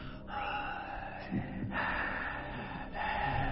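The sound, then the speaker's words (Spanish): A person imitates the heavy, raspy breathing of a horror-movie killer hiding behind a plant, with loud breaths in and out in a slow, steady rhythm and short pauses between them. Nobody speaks. “Cuando, cuando él estaba atrás, que iba a matar a su víctima, y él estaba atrás de la planta y se escuchaba la respiración que hacía.”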